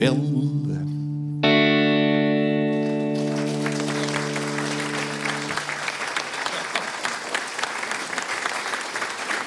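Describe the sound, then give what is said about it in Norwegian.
A song with a newer melody, sung in Dass's 1700s language in Toten dialect, closes on a long, sustained final chord that rings out for several seconds, and a steady burst of audience applause rises over it and continues to the end. “Det var en nyere melodi, da, som vi sikkert hørte.”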